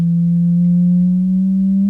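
A loud, low-pitched electronic test tone hums steadily for two seconds, creeping very slightly upward in pitch, with no voices or other sounds around it.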